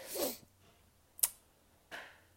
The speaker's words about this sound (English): What are you but what hey, what are you chewing on?